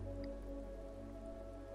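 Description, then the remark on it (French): Steady rushing water of a waterfall pours continuously with a soft dripping texture, blended with sustained low tones underneath. The waterfall flows from a huge rock in a small clearing surrounded by trees, starting a few meters above the ground. No one speaks. “Mais voici que vous entendez maintenant le bruit de l'eau qui coule, le chant d'une cascade”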